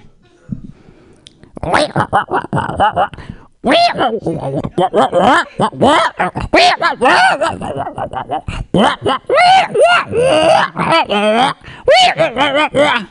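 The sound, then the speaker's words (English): A person's voice mimics a different kind of wolf howl as a loud run of pitch-bending yelps and wavering howls, strung together almost without pause for about eleven seconds. “It's a different kind of wolf.”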